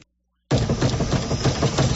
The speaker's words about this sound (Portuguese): Mas que barulheira é essa nesse carro? É, é a suspensão que tá muito ruim.